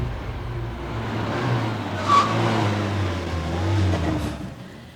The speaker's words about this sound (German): Schließlich hielt der Van nach einer scharfen Rechtskurve unvermittelt an.